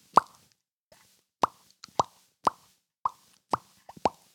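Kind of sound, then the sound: impact, table tennis ball bouncing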